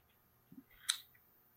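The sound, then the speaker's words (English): Dice clatter briefly on a table: a couple of soft knocks, then one sharp bright clack followed by a quick fading rattle, quiet, with no talking. “Dice roll ASMR, baby.”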